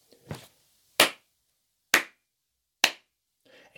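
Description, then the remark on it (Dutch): Three crisp, loud hand claps made together land in a steady, evenly spaced rhythm, each one sharp, with a softer rustle before them and a faint shuffle afterward. “Hé, hey, als wij samen drie keer in de handen klappen, moet je eens opletten wat er gebeurt.”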